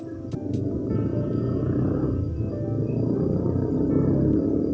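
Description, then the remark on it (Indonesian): A motorcycle engine rumbles steadily, a thick low growl holding at an even level for the whole stretch, with no one talking over it. “ya suara motor”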